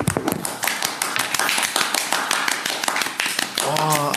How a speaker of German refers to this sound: Applaus.